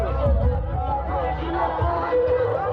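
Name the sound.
crowd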